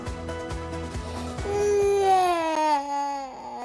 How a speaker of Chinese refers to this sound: 小宝宝哭了，但原因到底是什么？大姐姐用手机 APP 提供正解，原来是弟弟感觉太无聊，想要十五岁的姐姐抱抱陪玩。